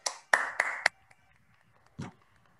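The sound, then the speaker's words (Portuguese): Applause from participants, who switch on their microphones to applaud in gratitude to a guest, comes through as a handful of sharp, scattered hand claps, four in quick uneven succession, then a brief lull before one final clap. No one speaks. “Abra os microfones e todos vamos oferecer uma salva de palmas em gratidão ao nosso querido companheiro que nos faz este presente tão magnífico com a sua presença aqui hoje.”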